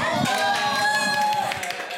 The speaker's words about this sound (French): Je veux des applaudissements.